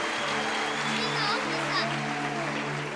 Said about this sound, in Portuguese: Salva de palmas, irmãos. Que bênção.